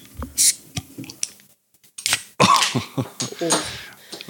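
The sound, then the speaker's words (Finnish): A beer bottle cap pops off with a short metallic clink and hiss, then after a brief silence a can's tab cracks open with a sharp snap and fizzing spray, with faint clinks around it. “Huomasitteko eron? Kummalla oli pullossa ja kummalla oli tölkissä?”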